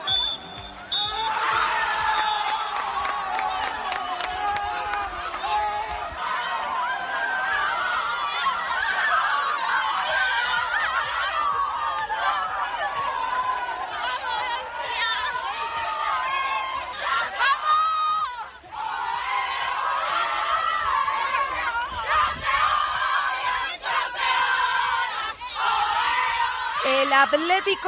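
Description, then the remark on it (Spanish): A short, high final whistle ends a women's football match at Zubieta, then a large crowd erupts in loud, sustained cheering, shouting and laughter without a break, as the Madrid side wins 3-1 away at Real Sociedad and clinches the 2018-2019 league title for a third consecutive year. “Así suena el pitido final de un partido en el que te proclamas campeona de liga por tercer año consecutivo.”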